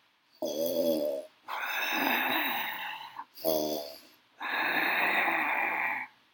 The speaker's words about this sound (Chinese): 大野狼睡着后，发出很大的打呼声。